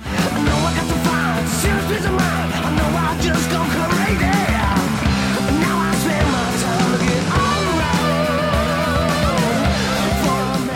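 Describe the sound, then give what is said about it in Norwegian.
A male rock vocalist sustains a long, clear note over loud, dense band music, his voice wavering slightly as the full instrumentation keeps driving underneath for about ten seconds. “Fy faen, så fin stemme han har når han ikke rasper på et vis.”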